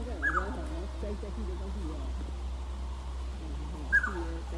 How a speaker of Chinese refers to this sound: 桃林古道，大里天公庙这一段，来听听看这个鸟叫声，很有趣。